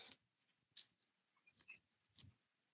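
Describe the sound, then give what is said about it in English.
A crumpled paper slip being unfolded, heard as quiet crinkles and several sharp rustling bursts at irregular intervals, with no voices. “this one's like extra crumpled up.”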